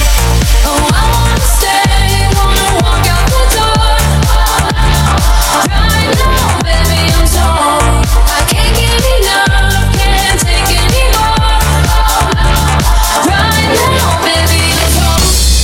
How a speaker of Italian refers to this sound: stai ascoltando il nostro remix su Crossover con Provenzano DJ.